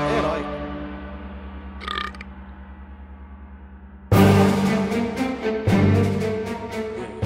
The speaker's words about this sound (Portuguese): arroto heróico, como um bom herói ah, faria. Esse, esse foi o bônus.